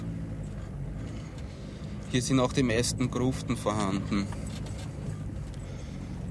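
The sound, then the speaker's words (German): A low, steady engine hum rolls on throughout as a car creeps slowly into the overgrown, disused Jewish section of a cemetery during a night-duty patrol, with a man speaking briefly over it partway through. “Jetzt fahren wir in den jüdischen Bereich rein.”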